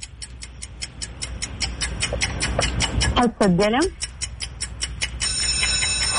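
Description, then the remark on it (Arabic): A steady, fast clock-like ticking runs throughout, evenly spaced sharp clicks of a ten-second quiz countdown timer, with people talking over it and a brief rising-falling tonal voice sound midway. “السؤال الاول يقول وش اسم المسلسل وبيبدا التايمر الحين قدامك عشر ثواني بعطيك خيارات”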